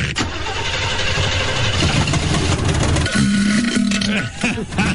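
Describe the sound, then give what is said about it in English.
The engine of a 1974 Oldsmobile cranks and catches, running rough with a loud, rhythmic knocking, then settles into a steadier droning note. Loud throughout, with no talking. “Sound like a rod or something done come loose in that thing.”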